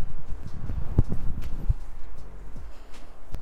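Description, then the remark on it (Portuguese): Strong wind blowing outdoors in a windy area, in the street where a newsletter is being recorded, a steady low rumble with irregular gusts and buffeting thumps that rise and fall without pause; no one speaks. “Hoje está, está mesmo muito vento”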